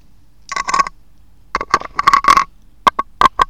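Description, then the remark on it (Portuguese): A guitar pick scraping across a seashell in bursts of gritty, rasping strokes, a longer rough stretch followed by several quick, sharp scratches, with no talking. “Mas eu vou fazer com uma palheta.”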